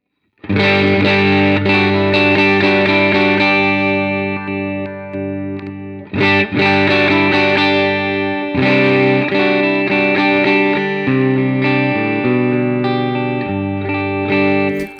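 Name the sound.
electric guitar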